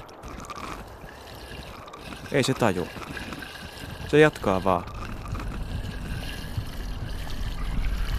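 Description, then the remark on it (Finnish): Dirty water gurgles and sloshes steadily as it wells back up from a drain that a man is trying to clear in the rain, swelling a little louder toward the end, while a man speaks a few brief phrases over it. “Sieltä tulee vaan likasta vettä takaisin ylös.”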